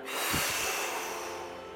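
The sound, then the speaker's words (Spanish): A forceful nasal exhale during a breathing exercise, a breathy, hissing rush of air through the nose with a few quick pulses at the start before it trails off. No talking. “Así que visualiza al entrar prana y al exhalar apana”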